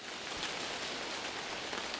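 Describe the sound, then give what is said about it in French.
Steady rain pours down, a dense, even hiss with scattered droplet patter throughout, fairly loud, with no voices or other sounds. “Tous les jours, on est dans les vignes, sous le soleil ou sous la pluie.”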